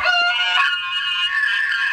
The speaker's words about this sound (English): Oh, you got an elk sound? Here we go.